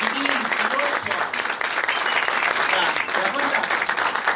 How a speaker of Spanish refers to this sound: Miren, acá hay un chico de 18 años que para un. Le demos realmente el aplauso, se lo merece él. Se está haciendo diálisis y él va a la convención.